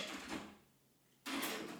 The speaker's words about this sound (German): Knarz!